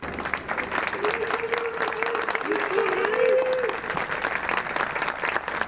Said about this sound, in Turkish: Bu sene 29 Ekim'de de siviller avludaydı. Mozeleye çelenk bırakılmasının ardından Cumhurbaşkanı görünür görünmez alkışlar başladı. Sonrasında reis sloganları.